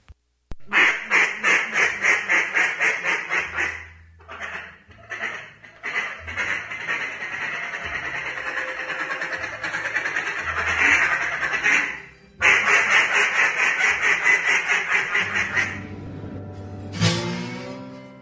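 A duck call blown in loud, rapid runs of quacking notes, close and steady, with short pauses between bursts and a final rising series near the end; no talking.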